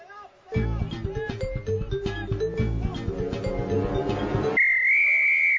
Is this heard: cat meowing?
no